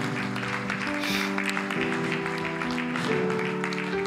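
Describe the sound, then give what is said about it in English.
A church audience claps steadily in a dense, continuous patter, mixed with sustained keyboard or organ chords playing underneath throughout. “Come on, let's give these guys a wonderful round of applause.”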